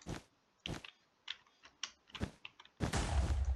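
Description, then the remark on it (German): Crisp clacks of computer keyboard keys struck in an irregular rhythm, then a louder, denser flurry of rapid keystrokes at the end, with no one speaking. “Ich meine zwei nicht mehr auf der Tastatur.”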